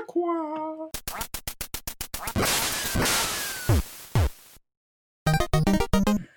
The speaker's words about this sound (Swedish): Här kommer ett litet ljud som låter ungefär kwa, kwa, kwa, kwa, kwa, kwa.